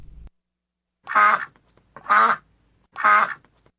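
A duck quacks three times at a steady pace, each call loud and nasal, with brief silences between them.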